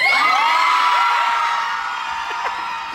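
A crowd of wedding guests lets out a long, sustained cheer on learning that a going-away party is actually a wedding, many high voices whooping and shouting together in a continuous joyful roar that stays loud and dense throughout.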